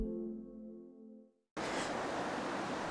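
A sustained tonal sound fades out, then after a brief pause the loud, steady roar of rushing, foaming river rapids at Myllykoski on the Sonnanjoki river cuts in abruptly and continues without any talking.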